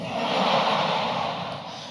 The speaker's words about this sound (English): I walked into a store the other day, I saw my favorite pack of gummy bears, and I gasped like I saw a celebrity.